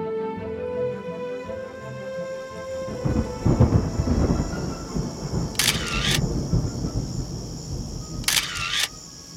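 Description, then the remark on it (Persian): Light rain patters steadily while a deep roll of thunder rumbles in partway through, followed by a couple of sharp mechanical clicks of a camera shutter as photos are taken in the rain. “یه چندتایی میخوای بدون چتر بگیریم بارونش کمه دیگه زود میگیرم خیس نشی”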